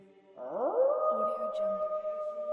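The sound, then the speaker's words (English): A voice imitates a wolf howl: one long, loud note that swoops upward, then holds steady and wavers slightly for a couple of seconds, with no talking over it. “whose nickname is …, who oftentimes, when there's a full moon, will go into the center of Central Park and begin baying to the moon.”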